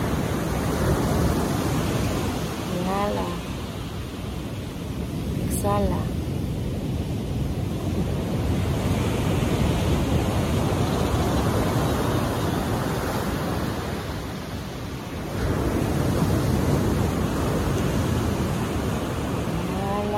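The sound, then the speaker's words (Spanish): Ocean waves wash steadily onto the shore in a continuous roar of surf, swelling and easing in slow surges, with a few faint, brief tonal sounds over the top. “Y Amaya se los va llevando con cada ir y venir de las olas.”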